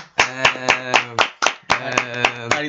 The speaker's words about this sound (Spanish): pones aplausos enlatados.